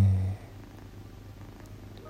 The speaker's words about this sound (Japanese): 猫がずっと、えー、膝でぐるぐるしていたので声が聞こえたかもしれないんですが